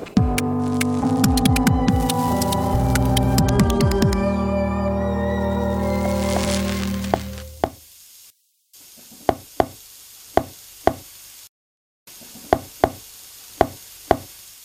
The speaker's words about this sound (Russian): Вот так звучат, как сказали авторы исследования, морские коньки when they get really horny, то есть в состоянии сильного полового возбуждения.